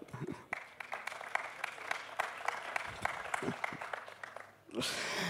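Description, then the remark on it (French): An audience applauds two invited guests with dense, steady clapping that swells into a fuller, louder burst of applause at the end. “Je pense qu'on peut déjà vous applaudir.”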